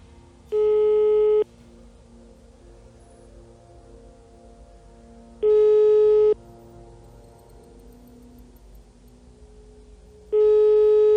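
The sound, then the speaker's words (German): A telephone ringback tone while dialing an emergency number: three steady, one-second beeps spaced about five seconds apart, clear over a faint background hum, with no one speaking. “Ja, äh, ich renne hin und wähle den Notruf.”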